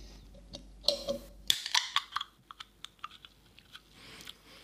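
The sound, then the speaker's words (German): An energy drink flavored with black tea, raspberry and passion fruit being opened: a short scraping click, then a sudden sharp hiss, followed by a trail of faint crackling and popping fizz. No one speaks. “Das sprudelt schon mal nicht so, ist aber auch Kohlensäure drin, habe ich gerade noch gelesen.”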